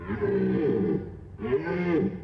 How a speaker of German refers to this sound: Die Brunftschreie der Hirsche sollen Nebenbuhler erschaudern lassen, zeigen, wer hier der Platzhirsch ist. Die Hirsche ziehen durch die Wälder, um sich mit Weibchen zu paaren.